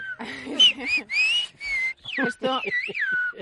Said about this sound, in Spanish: Puede parecer una competición de silbidos. De a ver quién hace más giros, ¿no? estamos saludando